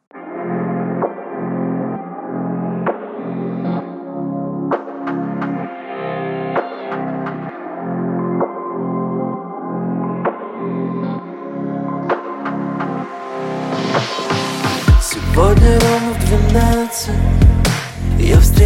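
The intro of a singer's new pop song plays with a steady, pulsing low beat and layered synth chords, building in brightness and intensity toward the end. No one speaks.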